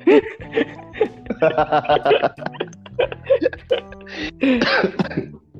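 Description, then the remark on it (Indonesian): Fairly loud coughing from one person in a string of rough bursts, mixed with throaty vocal noises and brief chuckle-like sounds, without clear speech. “Anjing tuh batuk gua.”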